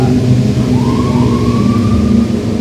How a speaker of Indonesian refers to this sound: Oh motor gede biasa